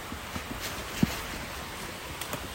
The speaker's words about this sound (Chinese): 就听到我们往下走的声音，是沿着这个溪流。下去的哦，所以我们沿着溪流下去，我们就是要走到一个水坑。